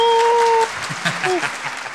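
Steady applause fills the two seconds, a dense crackle of many hands clapping. A sustained high tone sounds at the start, and brief vocal whoops come through near the middle.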